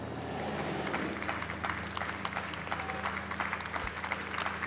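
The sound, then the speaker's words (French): About 800 people in a courtyard applaud loudly and continuously, a dense wash of overlapping claps holding steady from start to finish with no break, filling the space with no voices standing out. “800 personnes dans la cour qui applaudissent à tout rompre, ça aurait de la gueule quand même.”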